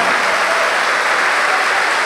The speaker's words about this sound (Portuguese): Faça com que estas palmas sejam as melhores que já se ouviram no planeta Terra.